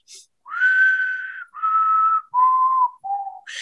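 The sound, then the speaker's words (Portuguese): A person whistles an imitation of a potoo's call: four mournful, drawn-out notes, each stepping lower than the last, loud, with brief gaps between them and no talking. “Tem o som do urutau, né? Que faz aquele.”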